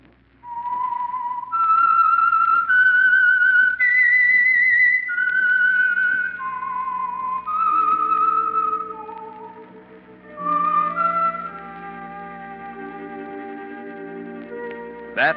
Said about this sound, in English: whistle is your signal for the Signal Oil program, The Whistler.